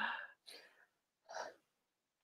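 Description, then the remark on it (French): A person imitates a dog's deep, relieved breathing into the pelvis: three breathy huffs of air, the last a long sighing exhale, followed by a brief pause. No words are spoken. “Les chiens, ils, respirent dans leur bassin. Vous les voyez, des fois, ils font.”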